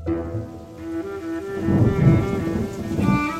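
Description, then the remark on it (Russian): Steady rain hisses throughout while a deep roll of thunder swells in the second half and rumbles on, with a faint sustained tone humming underneath; no one speaks. “Спасаясь от дождя, в сарай вошел нищий старик”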